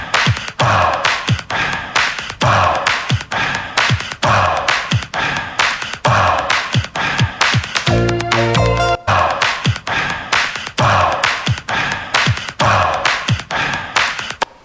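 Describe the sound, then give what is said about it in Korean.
A loud, rapid loop of breathy, airy bursts, sampled breathing sounds, repeats in a steady rhythm in a music track, with a brief glitchy, stuttering break midway before the pattern resumes. “이 부분은 그 숨소리를 샘플링한 것 같죠?”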